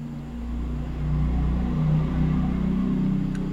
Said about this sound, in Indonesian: ada motor lewat tadi. ya. Iya. ini bahaya nih orang-orang yang bisa mendeteksi merek motor dari bunyinya ini cuy.